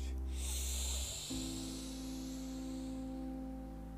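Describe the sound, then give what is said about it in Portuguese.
A single deep, airy diaphragmatic inhalation taken during a breathing exercise, fading after about a second, over a steady low humming drone that continues to the end. “Então vamos agora fazer mais uma vez esta respiração diafragmática. Inspire em 4 segundos profundamente.”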